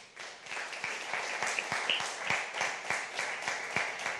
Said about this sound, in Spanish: Denle un aplauso al Señor por eso, ¿sí?